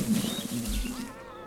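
A warbling electronic bonus alarm from a video game, signalling a chance at an extra life, with chirpy tones over a steady low hum, playing continuously at moderate volume with no voices.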